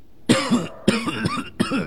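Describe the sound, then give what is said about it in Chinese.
An old man coughs violently inside his room, in three loud, harsh bursts, each a sharp hacking onset trailing into a rough, throaty rasp, with short pauses between them. “三人正准备往里面进，身后的老者的屋里突然响起一阵剧烈的咳嗽声。”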